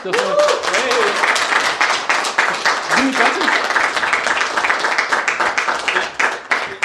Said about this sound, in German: Ja, und wir haben ein Publikum, das äh, ist auch nicht äh, normal bei uns, das kommt auch äh, nur gelegentlich vor. Macht doch mal ein bisschen Applaus vielleicht.